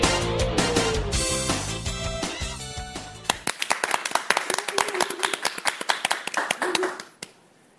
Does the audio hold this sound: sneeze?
no